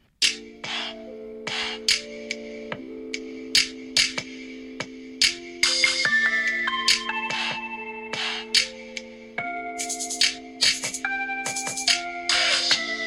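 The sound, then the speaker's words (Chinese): A synthesized electronic melody plays alone: bright, plucky notes struck in a steady rhythm over sustained chords that shift in pitch every few seconds; a phone ringtone composed on a tablet, played back directly from a mobile phone. “嗯，像这样铃声的话，你会在什么样的段落让它插入呢？”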